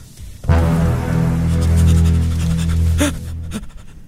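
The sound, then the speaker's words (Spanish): Heavy, loud panting breath, one long strained, voiced exhale lasting about three seconds before cutting off, with no talking. “La respiración número 58.”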